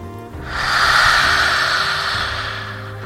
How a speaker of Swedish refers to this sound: Den här gången andas vi in djupt. Andas ut, öppna munnen, sträck ut tungan.